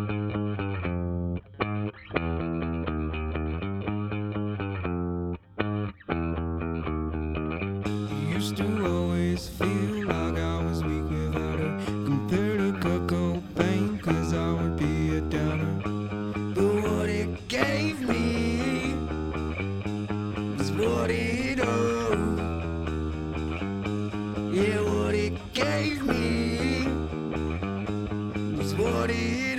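A band's loud rock song, played at the end of an interview, with heavily distorted, effects-laden guitars; after a few seconds of guitar alone, drums and crashing cymbals kick in and the full band drives on steadily with no talking.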